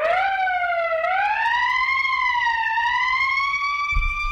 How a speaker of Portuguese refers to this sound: Esse gordinho aí que fica botando essa sirene da polícia